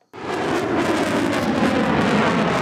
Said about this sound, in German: Es ist ein ohrenbetäubender Krach, wenn der Eurofighter über den Flugplatz Mollis donnert.